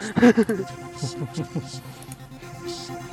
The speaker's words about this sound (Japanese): 我が家の近くででかいバイクが通りました。以上です。